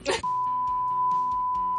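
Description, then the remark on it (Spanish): A steady, high-pitched censor bleep cuts in after a brief burst of voice and holds unbroken for over a second, with muffled talking still faintly audible underneath. “De esos ah. pitidos bonitos”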